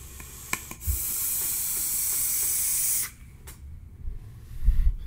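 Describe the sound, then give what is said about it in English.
A steady, bright hiss of vaping on a Roundhouse mech mod on a slightly dying battery, with a Kennedy 24 on top and Moo E-Liquids Brad's Cap, runs for about two seconds, preceded by a few small clicks and followed by a quiet low rumble with another faint click. “this is the roundhouse mech mod kennedy 24 on top moo e liquids brad's cap on top just a delicious vape”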